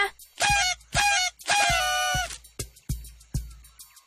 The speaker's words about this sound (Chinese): No，那是 BB 哨子。